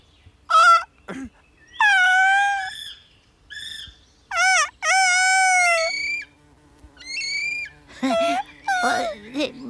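A series of shrill, wavering kiwi bird calls comes in separate bursts, some short and some drawn out, loud, with quiet gaps between them and no talking.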